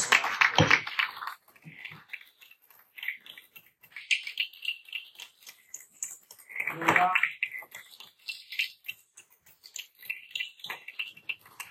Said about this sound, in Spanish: Le damos este aplauso al Rey de la Gloria, hermanos.